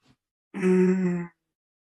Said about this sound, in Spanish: Bostezando si necesitas bostezar.